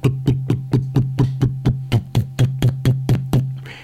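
A Harley motorcycle engine is started and runs loud at a slow, loping idle, its deep steady rumble punctuated by evenly spaced thumping beats, about four per second, with no voices.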